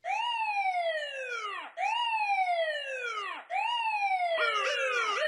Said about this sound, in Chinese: 我的工作就是帮忙抓坏人。聪明的小朋友，你猜对了吗？我就是警车。